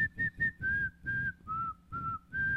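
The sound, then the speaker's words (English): A whistled melody from a pop song being played, several sustained, steady notes in a clear phrase, stepping down and back up, with a soft musical backing underneath and no talking. “It's just like whistling.”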